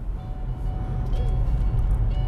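A car rumbles past, its heavy low engine drone steady throughout, with faint, tinny Christmas music playing from it over the noise.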